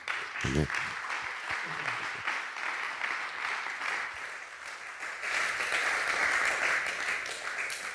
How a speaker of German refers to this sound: Den Applaus, dem gebührt Gott. Ihm gebührt alle Ehre.